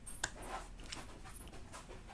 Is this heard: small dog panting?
yes